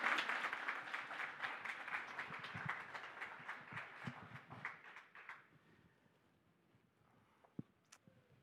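A group applauds, dense rapid clapping for about five seconds before quickly tapering off to quiet, with a couple of stray claps near the end. No talking.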